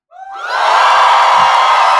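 A small group of about five audience members shouts and cheers at full volume, voices rising quickly into a loud, sustained, high-pitched roar of yells and whoops that holds steady to the end.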